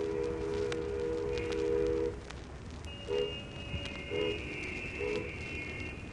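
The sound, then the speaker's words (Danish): A ferry's farewell salute in Denmark, heard from a bridge between Ringkøbing and Thisted counties: a long, deep horn blast for about two seconds, followed by three short, fainter honks spaced about a second apart over a steady background rumble. “Færgens afskedssalut lyder derude.”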